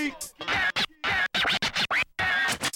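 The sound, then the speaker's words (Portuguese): Rapid bursts of turntable scratching by a DJ, choppy back-and-forth swipes with sharp cuts and pitch sweeps, loud, stuttering in quick rhythmic chunks with brief gaps of silence. “Então eu vou pedir pro nosso DJ ter o scratch do som.”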